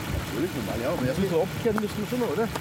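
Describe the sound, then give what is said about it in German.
A car engine idles at a used-car lot by Munich's Ostbahnhof ahead of a test drive, a steady low rumble beneath people talking, the hum continuing evenly under the voices for the whole moment. “Jetzt dreht's hier. Fahrt ihr jetzt eine Runde, oder?”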